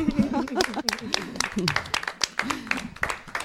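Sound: applause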